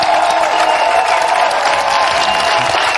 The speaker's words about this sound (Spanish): Muchas gracias, gracias. Gracias. Muy bien. Por favor, no aplaudan más porque que- queda falso, queda falso.